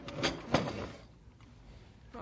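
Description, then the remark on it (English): A desk drawer slides open with a brief wooden scrape and a sharp knock, followed by quiet room tone and a faint soft thump at the end. “The papers are still here in my desk drawer where I put them after I talked to you.”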